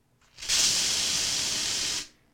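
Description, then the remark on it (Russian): A single sustained blast from an aerosol bear spray can, a pepper-spray-like can with an active agent against bears, a loud, steady hiss lasting about a second and a half before cutting off sharply. “Это, по сути, как такой, знаешь, перцовый баллончик, только с активным веществом против медведей.”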